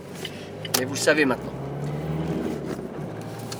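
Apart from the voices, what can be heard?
car engine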